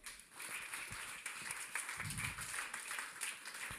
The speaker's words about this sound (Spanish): Dar otro aplauso fuerte al rey.